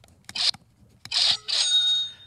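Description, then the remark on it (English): A cash register sound effect: a couple of quick mechanical clacks, then a bright bell ring that lingers and fades, loud with no talking. “That's, well, it's cash.”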